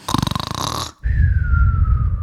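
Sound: voice imitating snoring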